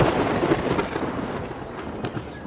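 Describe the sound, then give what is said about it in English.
A loud, sustained rumble of thunder fills the space, with sharp crackling bursts breaking through the low roar throughout. No voices are heard. “Underground lightning struck”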